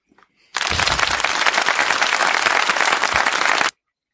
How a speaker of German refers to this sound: Dann muss ich Applaus einspielen, schnell.